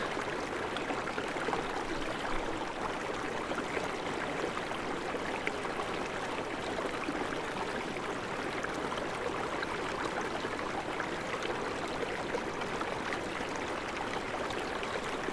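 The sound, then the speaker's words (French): A river flows steadily with a continuous, even rush of water, moderately loud, with no pauses or voices throughout. “Et toujours, vous suivez cette rivière”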